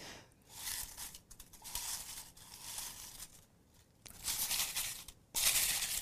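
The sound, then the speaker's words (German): Paper topic slips rustle and crinkle inside a full skull-shaped topic container in uneven bursts, fairly loud, with a brief pause and a sharper flurry near the end as a slip is drawn out. No one speaks. “Ist so schön, wenn der Themenschädel gefüllt ist und so viel drin raschelt.”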